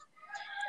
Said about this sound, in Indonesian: Aduh, ada ayam lagi. Shit, itu ayam. Itu ayam balik lagi, geng. Gila.